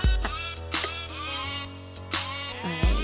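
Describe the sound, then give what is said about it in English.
A short musical cover of a pop song, its melody played in bleating, animal-like sampled notes over a sustained low drone, with sharp note attacks and no voices. “that is …. Yes. By ….”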